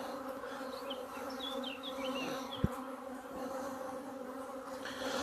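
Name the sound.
honeybees buzzing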